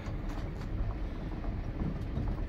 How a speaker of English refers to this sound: Uh, still on the train. Not much left to go.